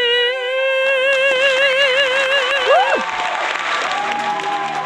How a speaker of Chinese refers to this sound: 我们现场都给掌声呢，他已经感动了我们现场的所有的在场的宝宝们。